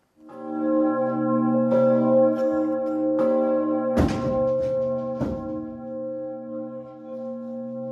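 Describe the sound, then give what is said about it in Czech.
The large bell Augustin in the White Tower (Bílá věž) in Hradec Králové tolls, struck several times at uneven intervals, each blow layering onto a deep, humming resonance that rings on steadily between strikes. “Na nový rok tak obyvatelé Hradce Králové zvonění na Bílé věži neuslyší.”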